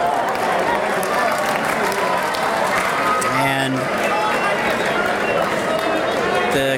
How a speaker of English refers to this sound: crowd clap as the batter draws a walk. I don't know who the batter was because they don't have the names in the back of the uniforms. But he's number 23.